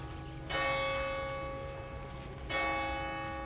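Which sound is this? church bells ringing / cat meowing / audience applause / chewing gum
church bells ringing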